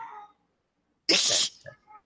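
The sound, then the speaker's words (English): A male cat lets out a single loud, harsh screech lasting about half a second, with faint murmuring sounds just before and after. “That's my cat whose butthole is constantly on fire, apparently.”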